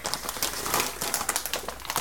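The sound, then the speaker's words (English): Continuous crinkling of a plastic pancake mix package being torn and opened, with sharp bright crackles and rustles pulsing irregularly throughout, no voices. “This is the sound of pancake mix opening.”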